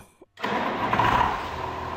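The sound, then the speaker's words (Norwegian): A tractor engine catches after a brief pause and settles into a steady, loud rumbling idle, heard on its own. “Er det liv i traktorene mine da?”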